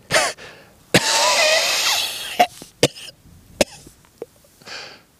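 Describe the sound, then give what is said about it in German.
A voice acts out a wolf choking on cornbread, with a long raspy strained gasp followed by a string of sharp coughs and harsh throat sounds, no words spoken. “Der Wolf verschluckte sich am Maisbrot und hustete und hustete.”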